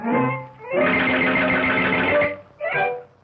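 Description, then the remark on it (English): Bouncy cartoon music with a busy, steadily pulsing beat plays loud, coming in three bursts with short breaks between them; no one talks. The music is synced to a cartoon character walking, with a beat for every visual beat. “there's a beat for every visual beat, you know, that's called Mickey Mousing”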